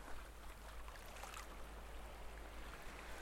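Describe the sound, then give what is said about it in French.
Gentle, steady waves wash softly over a sandy shore at a low tide, with no wind and no swell, a faint continuous swish with a slightly brighter surge midway, calm and low in level with no voices. “Seul le crissement des vagues sur le sable.”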